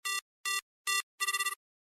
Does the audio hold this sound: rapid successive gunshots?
no